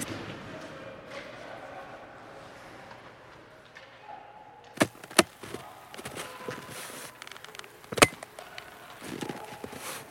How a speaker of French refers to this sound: Bah oui, allons-y. La porte est ouverte. Là, vous allez sentir le froid saisissant.